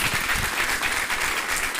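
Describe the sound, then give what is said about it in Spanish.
Loud, sustained applause from a crowd for God, the King of Kings, a dense steady clatter of many hands clapping at once with no pauses, filling the whole clip. “Él ese fuerte aplauso al Rey de Reyes.”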